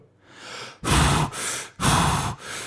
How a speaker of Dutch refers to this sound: Voor heel even is het gepuf van … het enige geluid in de kamer.